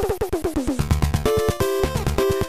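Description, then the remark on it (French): Background music from Castlevania III on the Nintendo NES, European and US version: chiptune with bright square-wave melody lines over a steady, punchy rhythmic pulse of noise-channel drums and bass, busy and loud, with no voices. “là, c'est la, BO qu'on entend en arrière-plan en fait de Castlevania 3 sur la, Nintendo, donc européenne, américaine, hein, marché US, marché Europe.”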